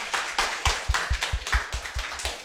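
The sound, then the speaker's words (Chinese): A small live audience of about forty people applauds steadily for a couple of seconds, a dense crackle of clapping hands with a soft, regular low thump pulsing beneath it. No one speaks. “咱们四十多个朋友，再来点掌声可以吗？”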